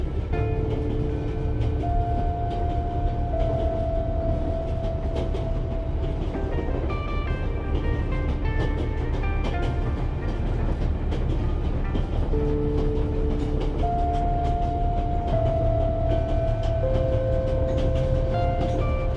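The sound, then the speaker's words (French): A train's steady, continuous rumble fills the space, dense low-end noise with sustained tonal hums shifting in pitch as it rolls along, even in loudness throughout. “Le bruit de votre respiration se mêle au chuchotement régulier du train qui enveloppe l'espace autour de vous.”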